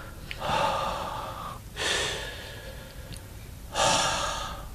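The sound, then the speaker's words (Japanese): A voice imitates close, breathy breathing right by the ear, as of a presence breathing there: three long airy breaths with gaps between them, each swelling and fading, growing smaller as if moving away, with no words spoken. “耳元で息を吹きかけられたというのと、耳元で呼吸音がちゃんとしてることとは違うんですよ。”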